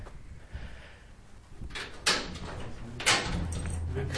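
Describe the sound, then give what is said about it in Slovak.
The heavy door of a small church is opened on a warm September day, with two solid clunks of the latch and wood about a second apart, followed by a low scraping rumble echoing inside the church. “Otvárame dvere kostola.”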